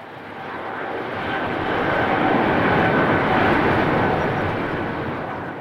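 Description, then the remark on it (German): An airplane taking off from Tegel Airport over Berlin early in the morning: a broad, steady jet roar that swells to a peak in the middle and then slowly eases, with no voices. “Bis zur Schließung des Tegeler Flughafens im November 2020 schaute sie regelmäßig den Fliegern zu, wie sie ganz früh morgens über Berlin starteten.”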